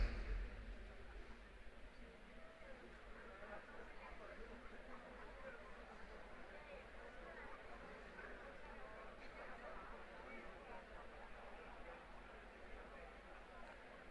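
An audience chatting with their neighbours all at once for 15 seconds, a steady dense babble of overlapping voices with no single speaker standing out, continuing evenly for the whole stretch.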